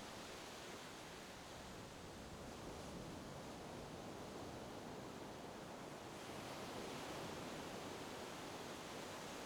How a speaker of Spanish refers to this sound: Notas la suave brisa que traen las olas y puedes oler la sal del mar. El agua sigue totalmente clara y el suave oleaje te relaja totalmente.